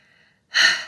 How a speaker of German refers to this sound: Einfach einmal, zweimal, dreimal durchatmen. Ich weiß nicht, äh, ihr werdet das alle kennen. Man hört einfach echt auf zu atmen wenn man gestresst ist.